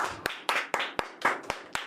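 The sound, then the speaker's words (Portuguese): A few people clap in a studio in a quick, steady rhythm, about eight sharp claps in under two seconds, moderately loud, with no voices, like a small, sparse round of studio clapping. “Porra, não teve um, um aplauso nesse estúdio.”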